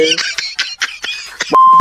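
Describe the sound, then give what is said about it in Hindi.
Phone dialing beeps as someone places a phone call, ending in a single steady electronic tone near the close, heard over busy, clattering sounds and voices talking in the background. “बस फोन लगा रहा”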